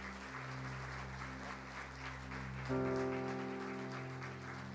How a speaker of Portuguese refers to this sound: Aplauda Jesus, queridos.